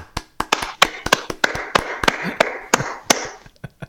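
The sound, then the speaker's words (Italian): A single person claps alone, roughly a dozen sharp, irregularly spaced claps at a steady pace, fairly loud, with a soft background hiss and no other voices. “il tuo applauso nel vuoto lì è fantastico.”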